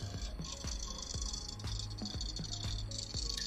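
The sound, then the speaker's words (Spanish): A rapid, regular ticking scrape repeats about twice a second over a steady mechanical hum, as something rubs against one of the fans with each turn, with no talking. “Sí, algo está rozando con uno de los ventiladores, güey.”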